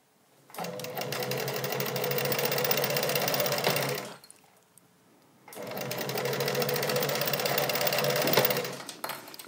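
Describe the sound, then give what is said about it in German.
A small sewing machine that needs oiling runs in two steady bursts of rapid, clattering stitching, each about four seconds long, separated by a brief pause, fairly loud with no talking. “Ich höre auch gerade einfach nur zu und ich höre, dass das mal wieder Zeit wird, das kleine Maschinchen mal ein bisschen zu ölen.”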